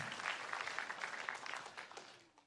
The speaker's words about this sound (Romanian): Haideți să dăm un rând mare de aplauze pentru respondenții noștri. V-ați descurcat excelent.